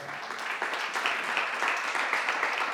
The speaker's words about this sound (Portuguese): Dá um aplauso aí, vai.